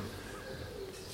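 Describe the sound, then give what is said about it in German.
A pigeon coos softly outdoors in Prenzlauer Berg, Berlin, heard from inside a felt shop, a low murmuring call over faint background ambience, with various birds chirping. “Ich höre da draußen auch gerade eine Taube und diverse Vögel zwitschern.”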